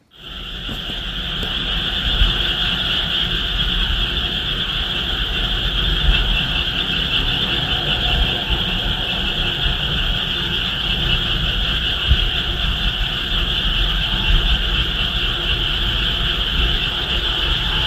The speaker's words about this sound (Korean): 새벽 1시 35분 개구리 울음소리에 잠을 깼어요. 다시 잠들려는 순간 백뮤직 여름소리 공모전이 생각나서 백그라운드님들께 백색 소음으로 들려드리고 싶어서 녹음해봤어요.